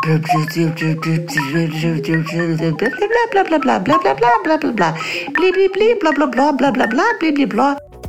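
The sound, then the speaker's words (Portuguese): Excited children's voices on Earth shout and cheer together, loud, with overlapping rising and falling yells of "Viva!" that continue steadily for several seconds before cutting off abruptly. “E sabe o que, que era? Todas as crianças estavam gritando: Viva! Viva! Viva o Zoom!”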